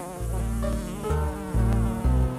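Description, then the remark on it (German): A loud, continuous fly buzz drones on without a break in a shop, its pitch shifting up and down in several distinct steps, as the shopkeeper tries to kill the fly. No one speaks. “der Ladeninhaber versucht halt diese Fliege äh, unschädlich zu machen”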